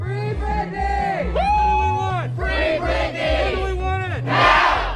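A protest crowd at a demonstration demanding a pop star's release from her conservatorship chants and shouts in rhythmic unison, loud repeated phrases with rising and falling pitch, ending in a burst of louder yelling.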